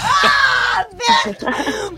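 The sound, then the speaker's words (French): A voice lets out a series of drawn-out, high-pitched vocal cries, mimicking an orgasm, loud, with brief breaths between bursts. “Et enfin, donnez-moi un cri d'orgasme.”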